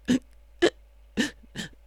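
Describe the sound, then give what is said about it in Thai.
A voice imitates a hiccuping, sobbing cry to illustrate the expression shiku shiku: four short, gasping catches in an uneven rhythm, moderately loud, with brief silences between them. “อันนี้ก็เป็นร้องไห้อีกแบบหนึ่งแต่ว่าเป็นร้องไห้อีกแบบคือคำว่าชิกุชิกุชิกุชิกุชิกุชิกุเนี่ย หมายถึงร้องไห้แบบสะอึกสะอื้นแบบ”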